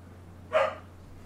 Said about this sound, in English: Oh, the dog agrees.